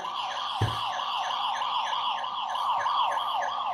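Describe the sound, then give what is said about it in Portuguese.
A loud electronic siren sound effect wails continuously, its pitch sweeping up and down in rapid repeating cycles, with a brief thump near the start and no one speaking. “Vou até tocar a sirene aqui que eu não fiz ainda.”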